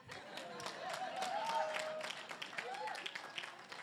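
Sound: audience clapping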